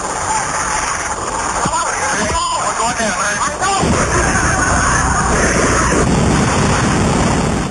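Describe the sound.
Distorted airliner cockpit voice recording of the last seconds before an in-flight explosion: a constant noisy hum, voices crying out "we are going down" and screaming, then an abrupt loud blast that gives way to a sustained roaring rush of noise.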